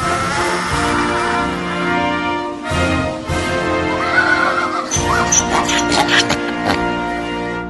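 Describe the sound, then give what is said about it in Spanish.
A donkey brays loudly, a long, harsh, wheezing call in several drawn-out bursts with brief breaks between them, filling the whole stretch. “¡Se te quedó la burra! ¡Se te quedó la burra!”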